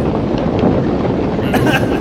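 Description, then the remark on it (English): Loud, steady roaring of torches being lit and burning in a cave, with a dense crackling texture, continuous throughout, with a few brighter pops near the end. “Let's light, let's light these torches that burn and crackle much louder than is normal for a torch.”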